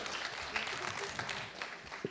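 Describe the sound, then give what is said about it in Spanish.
A burst of audience applause for an audience member fills the space, many hands clapping in a dense, steady patter with a few brief vocal shouts rising over it. “Muy bien, el aplauso es para él, ¿eh?”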